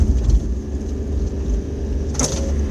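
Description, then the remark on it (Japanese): Steady low rumble of car traffic passing outside an opened window on a cloudy day, a continuous engine drone with a brief brighter hiss near the end, moderately loud, no voices. “ちょっとまだ開けちゃおうかなうるさいかなそうね車の音がまだ開けるとうるさいかな”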